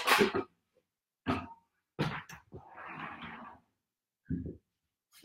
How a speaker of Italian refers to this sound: Scusatemi che chiudo la porta.